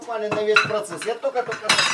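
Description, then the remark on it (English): Red wine is poured from a bottle into glasses for a man and his wife at their home outside Kupyansk, Ukraine, amid light clinking of glassware, with ringing tones over a steady trickle and a brighter splash of pouring toward the end. No one speaks. “He grabs a recent bottle of red, which he warns may be a little sweet, before pouring a glass for himself and his wife.”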